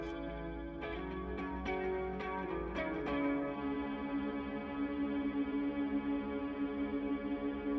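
Bat calls heard through a bat detector in July at half past nine in the evening: a quick series of sharp electronic clicks and chirps over a steady buzzing, warbly hum, followed by a drawn-out whirring drone with no talking.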